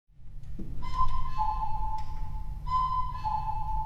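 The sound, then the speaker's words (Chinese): The cuckoo stop of the four-keyboard pipe organ at the National Grand Theatre (National Centre for the Performing Arts), custom-voiced for its concert hall and played from a mobile console, sounds two falling two-note calls. Each is a clear, whistle-like pipe tone with a steady pitch, over a low, constant rumble. “对，这个音色就是布谷鸟的音色，不是每架管风琴都是一模一样的。”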